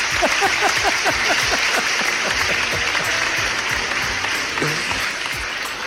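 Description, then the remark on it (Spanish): Steady, dense applause from a crowd, many hands clapping at once in a loud, continuous wash of sharp claps that holds for the whole stretch without letting up. “Coincidimos con aplausos.”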